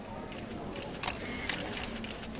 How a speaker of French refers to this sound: Nous le retrouvons à la conférence de presse qui accompagne l'événement.